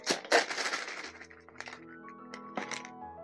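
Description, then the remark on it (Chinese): Toys tumble out of a box in a loud, crashing rush of clatter, followed by scattered knocks and clinks while faint ringing tones linger underneath. No one speaks. “怪物把箱子里的玩具哗啦啦的全倒了出来。”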